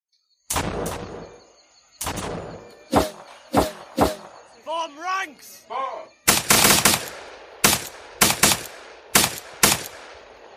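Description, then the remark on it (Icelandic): Sharp Snider rifle shots crack out one after another at an irregular pace in a battle, loud, with a burst of shouting voices between volleys midway and a denser cluster of firing toward the end. “Við gátum einungis reynda átt okkur á því hver menninni voru með því að hlusta eftir skotrið úr snæderiflim sem hljóma allt öðruvísi heldur en um framhlanningar að sjandimanna.”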